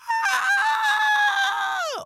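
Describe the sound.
A person imitates a rooster crowing: one loud, drawn-out, nasal call that holds a steady high pitch for about two seconds, then drops sharply at the end.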